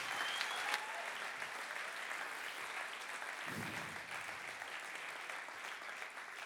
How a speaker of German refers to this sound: Gib mir den Applaus, hey.